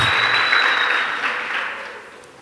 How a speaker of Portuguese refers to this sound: Aplauda Ele bem forte, porque Ele merece toda a honra e toda a glória.